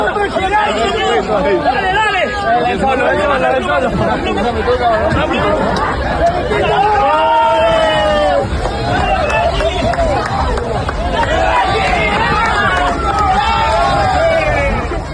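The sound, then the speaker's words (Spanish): A dense crowd shouting and cheering at the poolside celebration of the Monaco Grand Prix as Checo hugs Calderón and pulls him into the pool, loud and continuous, with overlapping excited voices and rising whoops throughout. “Está, es el momento en que va abrazando y la gente va gritando y el checo abraza a Calderón, lo jala y lo lanza con él.”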